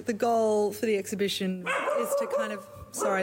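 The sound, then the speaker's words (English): A dog barks and yips repeatedly in short, sharp bursts, its high-pitched barks overlapping a person who keeps talking. “that's the dog”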